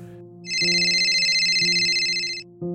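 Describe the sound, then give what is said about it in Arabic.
A phone rings with a loud, warbling electronic tone in one continuous burst of about two seconds, over a steady low hum of background sound. “رن الهاتف”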